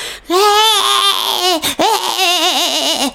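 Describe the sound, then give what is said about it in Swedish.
A voice mimics a wailing infant lying in a cradle, producing loud, sustained warbling cries with a wavering pitch, broken by a brief gasp midway before the crying resumes for a few more seconds. “Om ett spädbarn ligger i en, vagga och så bara...”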